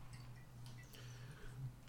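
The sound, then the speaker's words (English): A countdown clock ticks quietly at a steady pace over a low, constant hum, with no one speaking. “this is the part where the countdown clock starts ticking.”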